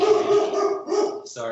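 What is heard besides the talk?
dog barking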